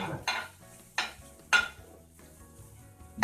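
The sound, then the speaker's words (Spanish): Meat sizzles as it browns in a pan, a low steady crackle broken by three sharp scrapes of a utensil stirring it, roughly half a second apart. “Pero es que quedé como, creo que quedé doradito, ¿no? Sí, claro, la idea es que como doradito, con eso la carne”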